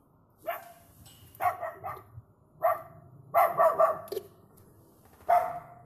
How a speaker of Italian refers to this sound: Alexa, fammi il verso del cane. Ecco il verso che hai chiesto, cane.